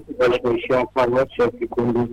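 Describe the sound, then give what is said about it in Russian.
A caller's voice comes through a phone line with a hollow, echoing quality, as a radio receiver playing near the caller feeds the speech back, smearing the words slightly. “И мы вас слышим хорошо, но вот эхо немножко мешает. Как, знаете, как в пустом зале там.”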